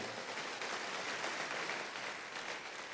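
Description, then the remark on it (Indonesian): Sustained applause from a crowd during a sermon, giving their loudest applause for God, a steady, dense wash of clapping that holds an even loudness for the full three seconds with no voices rising above it. “Ayo tepuk tangannya yang paling meriah buat Tuhan kita.”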